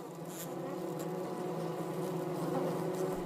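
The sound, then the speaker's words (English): A dense, steady drone of many honeybees buzzing together as a swarm, loud, with overlapping hums that rise and fall slightly but never stop. “There could be that there is a congestion in the hive of adult bees.”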